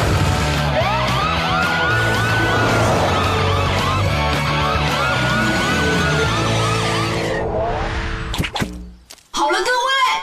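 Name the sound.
police car siren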